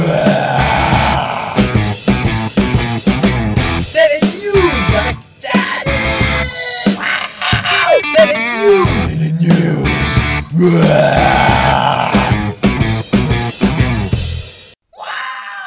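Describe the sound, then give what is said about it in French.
A loud, brash opening jingle for the news segment on Diablozor, dense and distorted, full of shouted and strained vocal sounds, running nonstop for about fifteen seconds before cutting off abruptly. “Il sort son drapeau américain pendant le jingle quoi.”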